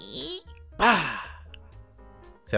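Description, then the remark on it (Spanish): A voice imitates a door creaking open and shut: a breathy hiss, then a loud, wavering creak that trails into a low rattling drone, ending with a short sharp burst. “abrí y cerré la puerta.”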